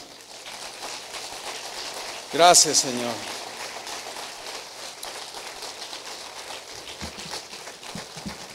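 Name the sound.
audience applause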